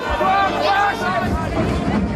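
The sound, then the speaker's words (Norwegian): A crowd of demonstrators at the COP26 climate conference shouting slogans, a dense, steady roar of many raised voices blending together, loud and continuous throughout without a break. “demonstranter ropte slagord.”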